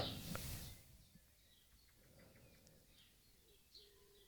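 Faint birdsong with scattered short chirps and tweets over a quiet outdoor hush, after a brief rustling noise at the start.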